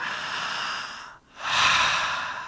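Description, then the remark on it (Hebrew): A person demonstrating deep belly breathing: a long, airy exhale followed by a brief pause and then a deep, full inhale, clearly audible with no talking. “כן, תינוק הוא נושם בטן, ואז החזה מתמלא, כי נגמר המקום בבטן.”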